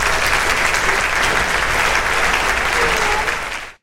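An audience applause sound effect added to a video: a burst of dense applause, steady and loud throughout, with many hands clapping at once before it cuts off abruptly at the end.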